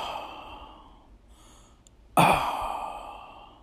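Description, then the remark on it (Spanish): A voice imitates a man's heavy breathing in a sauna: a long, breathy exhale fades out, a brief pause, then a sudden loud, forceful breath that slowly trails off, with no words. “Digo, joder, vale, vale, sí, respiraba muy fuerte este hombre.”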